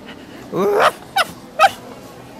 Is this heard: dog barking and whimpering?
yes